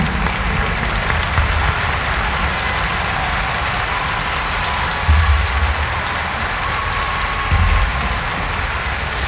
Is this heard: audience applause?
yes